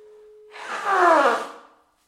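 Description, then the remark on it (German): A steady, unbroken telephone dialing tone hums for about half a second before a loud, breathy rush of noise, someone blowing their nose, swells over it, nearly burying it, then both fade to silence. “Ich würde sagen, du wählst kurz und ich schneuze halt kurz mein Näschen.”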